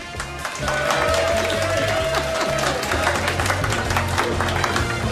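Audience applause swells in after a brief moment and continues as steady, loud clapping, with rhythmic music and a thumping bass playing underneath.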